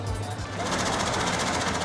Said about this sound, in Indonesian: Bawang yang sudah betul-betul bersih akan dipotong tipis-tipis dengan bantuan mesin.